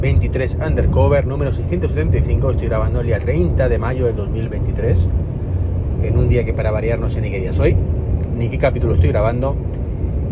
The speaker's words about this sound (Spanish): vuelvo a estar en el coche, con lo cual lo escucharéis de fondo, el ruido del asfalto que además estoy mismo una carretera donde hace bastante ruido la rodadura.